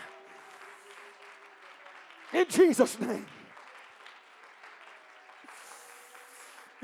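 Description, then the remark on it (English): An audience claps their hands in a steady, continuous rhythm to praise the Lord, while a man's voice briefly calls out loudly over the clapping partway through. “Oh, let's clap our hands and praise the Lord.”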